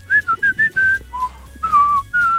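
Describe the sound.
Someone whistles an imitation of a small bird's song: a quick run of four bright chirping notes, a lower dip, then longer gliding whistles, clear and fairly loud with no talking.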